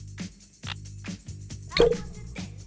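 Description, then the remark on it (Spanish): A bottle is opened to pour another drink, popping with a short, bright hiss partway through, surrounded by several soft, evenly spaced clunks and knocks. No one speaks. “¿Escucharon la botella cómo se abrió?”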